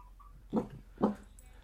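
A dog gives two short, gruff barks about half a second apart, with nothing else but a quiet background hum.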